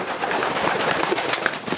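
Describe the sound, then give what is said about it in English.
A pigeon coos softly in a tropical setting with palm trees, over a steady, rustling outdoor background, with no one speaking. “stealthy approach is thwarted, however, by the sudden appearance of a pigeon.”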